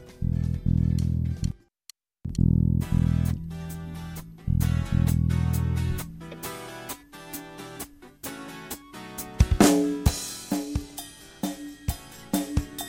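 Electric guitars played through an effects unit sound loud, effect-laden chords in stop-start bursts as a band gets on stage, pausing briefly near the start before settling into a busier, rhythmic strummed passage. No one speaks.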